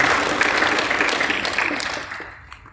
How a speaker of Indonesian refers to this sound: Boleh tepuk tangan buat hamba Tuhan yang luar biasa.